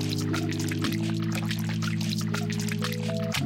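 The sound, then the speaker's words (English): Rainwater pours steadily into a cascade of open-air holding basins in a square, the largest two and a half meters deep, fed by connected pipes, gutters and pools that collect rain overflow. A continuous hissing rush over a sustained low humming drone that shifts pitch twice. No voices. “Then after an hour, the pump stops, and then the basins fill with clean rainwater.”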